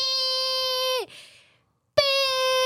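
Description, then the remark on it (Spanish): A voice imitates a car horn honking in traffic: a loud, sustained nasal blare that sags in pitch and trails into a breath, then a second long blast starts abruptly after a short pause. “Es muy estresante, en serio, escuchar el claxon así como de pi”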